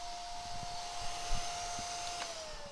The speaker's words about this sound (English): The fucking vacuum's on the fritz as well and just came on by itself. This is a disaster.